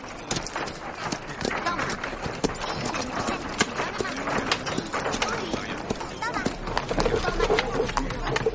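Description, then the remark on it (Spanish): Horse hooves clip-clop in a steady, quick rhythm throughout as a knight mounts the horse, sharp knocking beats over a busy, rustling background with some voices mixed in, growing slightly louder toward the end. “El caballero sube al animal y mira al cielo.”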